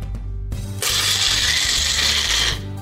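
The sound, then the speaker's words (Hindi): A Wonderchef Nutri-Blend mixer grinder whirs loudly, its motor roaring with a harsh, gritty grinding of parmesan cheese for pesto for about two seconds before winding down to a lower hum. “parmesan चीज़ इसको हम piece लेते हैं”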